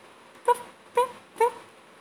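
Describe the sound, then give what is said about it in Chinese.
A small puppy whimpers three times, each a short, high, slightly rising whine spaced about half a second apart, with quiet pauses between and no talking. “我是个胆小鬼，就算是一只小小狗，我也觉得很可怕。”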